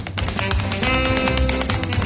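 Quick, sharp tap-dance steps clatter in an uneven rhythm over a jazz band's sustained horns and steady bass, the taps cutting through loudly throughout; a 1959 recording of a tap dancer with a group of jazz musicians.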